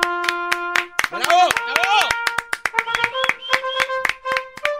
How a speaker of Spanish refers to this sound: Es un aplauso muy sumiso, maestro.